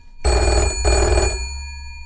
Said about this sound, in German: Oh, hast du dein Telefon nicht ausgemacht?